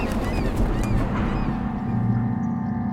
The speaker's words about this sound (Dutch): Het was die dag dat de vogels in vrijheid vlogen. Ze noemden mij …, maar wie ik echt ben, dat weet ik niet meer. Het was die dag waar de vogels schreeuwden en krijsten door mijn vrijheid te komen.